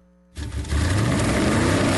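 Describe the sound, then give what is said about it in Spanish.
A loud engine suddenly roars to life and revs up, its pitch climbing steadily as it accelerates, with no one talking. “Voces y rugidos en Autos y Motos de Blue Radio.”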